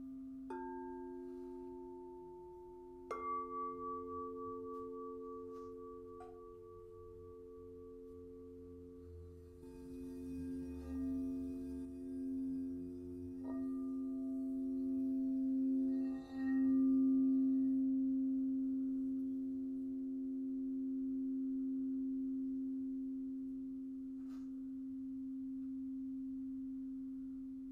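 Crystal singing bowls tuned to 432 hertz ring in a long, steady, humming drone, with fresh tones layered in now and then as more bowls join; no one speaks throughout.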